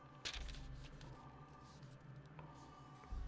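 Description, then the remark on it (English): Soft papery rustling as sheets of notes are turned, with a few brief crinkly bursts over a low background hum and no talking. “Sorry, I'm turning pages.”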